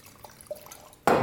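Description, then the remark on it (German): A couple of faint liquid drips, then white wine at 9 degrees, taken straight from a storage cabinet, suddenly gushes loudly into a glass in a bubbling pour at the very end. “Blubbert mit 9 Grad ins Glas.”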